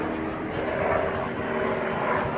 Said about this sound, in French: même un hélicoptère, je ne sais pas si on voit.